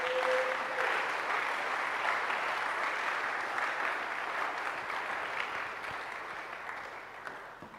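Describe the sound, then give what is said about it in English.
A church audience claps hands for the Lord in sustained, dense applause, a steady crackling wash of many hands that holds loud for several seconds before slowly tapering off. A brief tone sounds at the start. “Give the Lord a wonderful clap of hands.”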